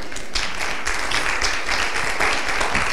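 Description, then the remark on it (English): A church audience claps together, giving God a hand clap, a dense, steady patter of many hands that stays level and fairly loud for the whole stretch, with no voices over it. “That, that, go ahead, give God a hand clap if you want.”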